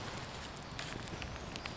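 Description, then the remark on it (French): A small campfire catching in a small dug hole, built as a little pyramid, with very damp wood on an evening with little wind: a soft steady hiss and scattered faint crackles and pops over a quiet outdoor background. Nobody speaks. “C'est bon, j'ai du feu. Timide encore, mais il est là.”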